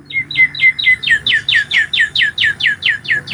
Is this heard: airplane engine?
no